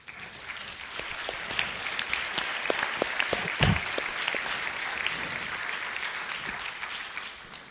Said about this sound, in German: Applaus dem großen Denker.